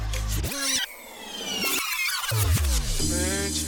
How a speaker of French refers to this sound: Un petit scratch.